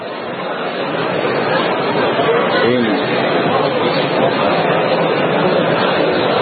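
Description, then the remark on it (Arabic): An audience in a hall chattering at once, many overlapping voices blending into a steady, fairly loud murmur that continues throughout without any single voice standing out. “أنا سامع لغط من الإخوة أرجو أن يصمتوا لعلهم يسمعون لأن هذا الصوت يشوش علي أنا الآخر يعني عندما يأتيني أصوات من عندكم تشوش علي يعني.”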